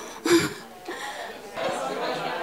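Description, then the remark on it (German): An audience of people turning to their neighbours, greeting them and sharing in a few words which event in their life changed them most, talking over one another in a steady, overlapping hubbub, with a brief burst of chuckling near the start and no single voice standing out. “dreht euch zu eurem Nachbarn und sagt vielleicht erstmal Hallo”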